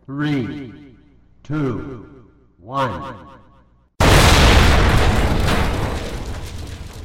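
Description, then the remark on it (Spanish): Three short, falling voice-like calls give way to a sudden, massive atomic bomb test explosion, set off in the early morning of 16 July 1945, a loud roaring blast that rumbles on for several seconds with no sign of fading. “La luz emergente de la explosión fue primero blanca, cegadora, luego naranja, azul, púrpura según los testigos, y solo hay una fotografía a color del suceso.”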